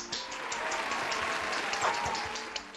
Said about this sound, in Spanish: Exactamente. Así que felicitaciones y fuerte el aplauso.